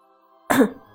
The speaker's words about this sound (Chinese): 苏哲咳嗽一声